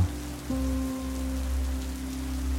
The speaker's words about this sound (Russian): В детстве одним жарким летом мы с братом шли домой — и попали под сильный дождь.